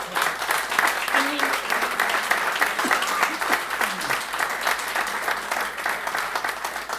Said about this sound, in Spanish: Por lo tanto, un aplauso.